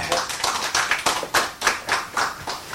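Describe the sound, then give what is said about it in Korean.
An audience claps steadily for a lawyer introduced as a guest, many hands producing a dense, crackling patter with a few sharper claps standing out, sustained at a fairly even loudness with no voices over it. “여러분 그대한 변호사님께 박수 한번 부탁드립니다.”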